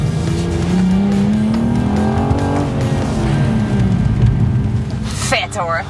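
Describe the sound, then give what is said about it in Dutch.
A car engine revs hard and steadily as the driver accelerates decisively on a timed run around a course of traffic cones, its pitch climbing and falling, with brief tyre squeals near the end as it swings through tight turns. “En geeft zeer gedecideerd gas. Stuurt strak langs de pilonnen, overigens af en toe onder licht protest van de auto.”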